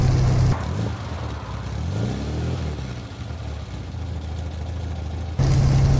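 A small Morris Minor car engine runs steadily, its low mechanical hum rising and falling as it revs, with a rumbling idle at the start and end.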